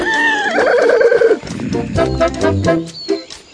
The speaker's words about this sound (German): Das Pferd.